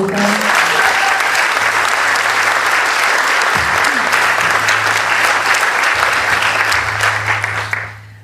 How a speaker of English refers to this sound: Congratulations. Can we get a round of applause again for you